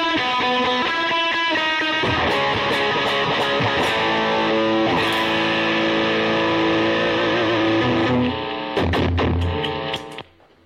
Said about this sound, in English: So this is the Echoplex.